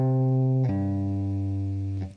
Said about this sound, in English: You're going to be tapping on the 8th fret on the low E. Then you're going to have your first finger on the 3rd fret on the same string, the low E, and you're going to pull off to it.